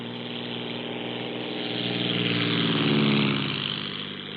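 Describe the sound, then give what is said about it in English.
A small border patrol aircraft engine drones steadily, then revs up louder and rougher toward the end as it powers for takeoff, with no voices. “One way is to send up small aircraft that can spot wetbacks in the fields or along the railroad beds.”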